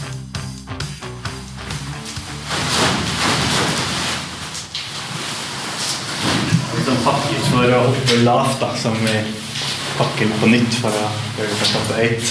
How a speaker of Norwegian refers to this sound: De styrer og ordner med skjermer som ligner vanlige fallskjermer, bare at de er litt mindre